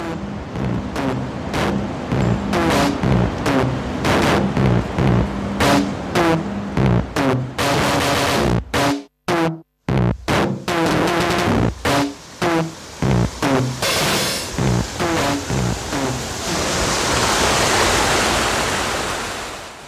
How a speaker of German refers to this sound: gibt es auch fünf kurze Audiostücke von mir zu hören, wo Geräuscheindrücke aus Kläranlagen zu hören sind. Hier nun das Kapitel Verunreinigung.